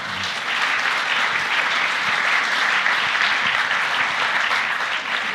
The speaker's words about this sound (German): Wer ist von der Hauptjury da? Und gerne Applaus auch natürlich für die Hauptjury, ja.